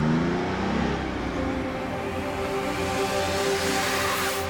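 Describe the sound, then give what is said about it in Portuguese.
A motor vehicle drives along the Trans-Amazonian Highway with a steady engine drone, its pitch rising and falling slightly as it accelerates, with a broad hiss of road and wind noise throughout. No one speaks. “estes são os sons da Transamazônica.”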